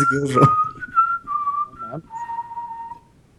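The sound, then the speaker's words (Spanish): A person whistles a movie theme: a short, wavering melody of sustained pitched notes that step up and down, preceded by a brief burst of laughter or voice, fairly clear. “me pidieron que chifle la de Harry Potter”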